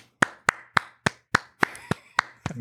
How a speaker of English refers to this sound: And uh, I would like to uh, give him a warm applause. So, everybody, raise your hands to the director of Minari, Lee Isaac Chung.